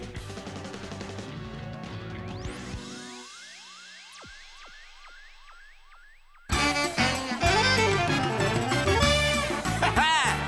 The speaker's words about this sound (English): You hear that? Yeah, that's the sound of Mardi Gras, baby. Throw me something! Just something about the tradition of it all.